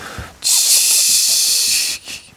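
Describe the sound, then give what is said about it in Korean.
A hot stone pot (dolsot) of bibimbap sizzles loudly as it is carried in, with sesame oil heating against the hot stone: a steady hissing burst lasting about a second and a half before cutting off, followed by a brief fainter hiss. No one speaks. “돌솥은 들고 오실 때부터 지글거리는 소리가 먼저 와요.”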